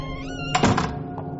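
A single dull thump, like a door being pushed shut by hand, sounds over a faint steady hum, followed by a softer small knock.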